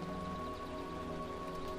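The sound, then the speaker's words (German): Steady rain pattering onto the surface of a small, clear pond in a forest, a continuous even wash of drops with no pauses, layered over a soft sustained tonal hum. “Der Regen, der auf die Oberfläche des Teiches trifft, kreiert wunderschöne, konzentrische Kreise.”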